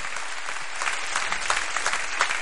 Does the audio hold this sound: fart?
no